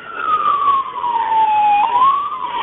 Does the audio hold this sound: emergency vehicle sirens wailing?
yes